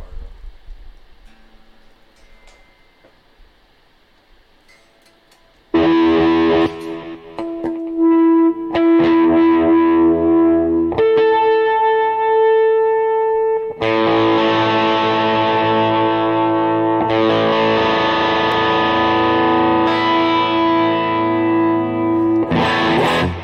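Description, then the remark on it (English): An electric guitar being tuned through effects, with the volume on, to match another guitar: a few quiet plucks, then loud distorted sustained notes with bright harmonics, each held a couple of seconds as the pitch shifts slightly between strums. No talking. “Let's tune to this other guitar.”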